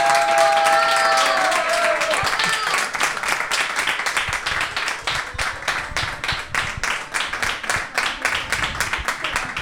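An audience breaks into sustained applause, dense, steady clapping that stays loud for the whole stretch, with a few high whistles and cheers rising over it at the start.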